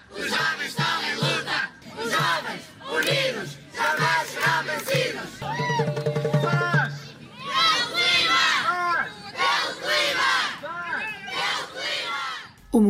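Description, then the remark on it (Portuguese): Thousands of students filling streets across Portugal in March 2019 for climate action chant slogans in unison ("Governo, escuta! Os jovens estão em luta!"), loud, in rhythmic repeated phrases with short pauses between them. “Em março de 2019, milhares de estudantes encheram as ruas de norte a sul do país com entusiasmo e força de vontade em prol da mudança climática.”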